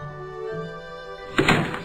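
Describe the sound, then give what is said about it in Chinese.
A door opens with a single solid thunk and a brief rattle near the end as a father comes home, following a steady, low, sustained musical drone that plays throughout. “这时，我听到开门的声音”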